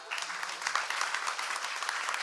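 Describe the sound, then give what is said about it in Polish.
Steady applause from an audience at a book presentation, a dense crackle of many hands clapping at an even level throughout, with no voices standing out above it. “Brawa dla niej!”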